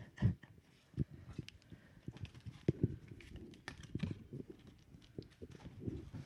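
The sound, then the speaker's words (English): A deck of cards being shuffled, a quiet, irregular run of soft slaps, flicks and taps that continues for several seconds with no one talking. “Put this down to shuffle.”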